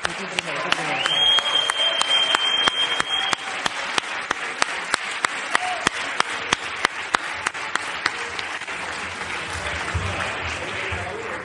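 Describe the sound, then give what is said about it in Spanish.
An audience at an award ceremony applauds steadily for several seconds to welcome a presenter, a dense wash of many hands clapping with a few sharper claps standing out, loud throughout. “Y para presentar este premio, por favor, un fuertísimo aplauso”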